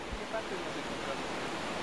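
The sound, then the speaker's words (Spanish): The Machangra River flows steadily, a continuous rushing hiss of water that stays even throughout, moderately loud, with no clear voices or other sounds standing out. “En el, a las orillas del río Machangra, un lugar sagrado donde nuestros abuelos se bañaban hace 60, 70 años.”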